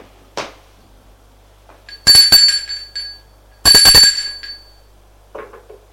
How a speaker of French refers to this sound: Vite, elle va prendre l'ascenseur. arrivé à l'étage, elle va sonner à la porte de son appartement.